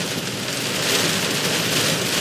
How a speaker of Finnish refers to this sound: Tää on tää lentokenttä, tää, tää mesta, tää paikka ihan yhtäkkiä niin aivan hullu sade, aivan hillitön meininki. Jihaa! Tää on jännittävää nyt muuten.